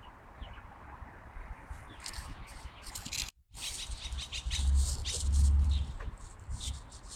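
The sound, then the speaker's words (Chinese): Light-vented bulbul and blackbird calls ring out in repeated bright chirps and short warbling phrases, layered over a steady low rumble, with a brief silent gap midway. “嗯，这声音有白头杯的，也有。也有乌冬的声音。”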